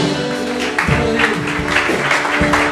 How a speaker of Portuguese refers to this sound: Aplauda Deus de todo o coração.